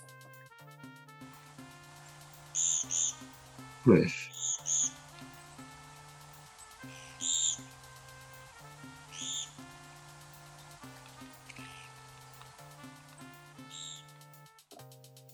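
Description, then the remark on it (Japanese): A Japanese pygmy woodpecker (kogera), a common bird often heard calling in town streets, gives a series of short, squeaky, buzzy calls at irregular intervals, clear over a soft steady music bed, with a brief spoken phrase. “これ実はコデラっていうのはしょっちゅうね、泣いてるので、あの、もう普通に街中歩いてても、鳴き声しょ、もうそこら中からね、聞こえてきたりするんですよ。”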